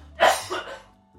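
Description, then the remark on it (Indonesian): Two quick coughs from a person who is feeling unwell, a sharp loud burst followed by a softer second one, with no talking. “gak enak banget ya podcastnya sambil batuk-batuk.”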